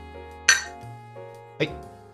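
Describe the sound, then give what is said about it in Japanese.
Two bright glass clinks ring out about a second apart, clear, each with a short shimmering decay over a quiet, low background hum, as glasses are clinked together in a toast. “半ばしよう。乾杯。はい、乾杯。”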